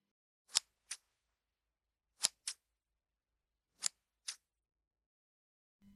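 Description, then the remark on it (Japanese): A woman opens and shuts a pair of shiny silver scissors, snipping in three quick pairs of crisp metallic clicks, spaced a second or so apart, against otherwise near silence. “サイドテーブルの上の三つ折りの黒い布を開くと、中には銀色に輝くハサミが並んでおり、彼女はその中の一本を手に取って二度三度と歯を動かした。”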